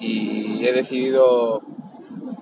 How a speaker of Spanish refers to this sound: Perdón por el ruido, pero voy en el coche